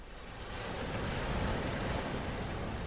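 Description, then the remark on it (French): Atlantic Ocean waves wash against the shore in a steady, broad roar that swells slightly after the opening moment and then holds, with some wind mixed in and no voices. “La ville des éléphants la porte vers l'océan Atlantique.”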